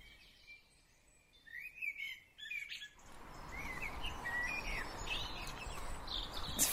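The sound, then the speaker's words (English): Birds chirp and whistle in short, repeated bursts of a dawn chorus in the very early morning during a cold snap, against a steady outdoor background hiss that grows fuller halfway through, several calls overlapping with no voices. “The birds are just waking up.”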